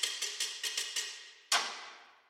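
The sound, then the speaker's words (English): Drumsticks click out a quick, steady ticking-clock rhythm of about seven sharp taps, doubling a click rhythm in a music track to supply urgency and pace, then a louder accented hit lets its bright ring fade away. No one speaks. “And this is more sticks supplying this urgency, this pace, this ticking clock which if you see, that's all it is.”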